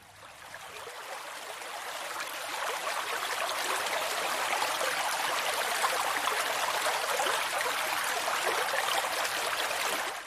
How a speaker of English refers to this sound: Which would you like? Babbling Brook.